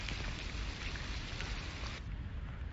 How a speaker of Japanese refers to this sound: まあ、雨は、やっぱね、さっきジャバジャバ音うるさいんですよ、さっき。戻ってきましたけども。あの、もう聞くに耐えないんですよ、あんな排水の音。うるさかった。